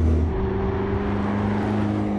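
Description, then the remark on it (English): A powerful 625-horsepower twin-turbo V8 sports car engine rumbles loudly, holding a steady, deep droning tone with a slight shift in pitch partway through, and no one speaking. “It's a 625 horsepower V8 twin turbo engine.”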